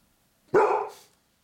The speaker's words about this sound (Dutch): als je mijn hond bent, wil je dan woef zeggen?